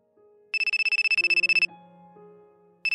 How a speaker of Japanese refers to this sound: 会話の途中、男性は携帯にかかってきた電話を取り、ロシア語で会話を始めた。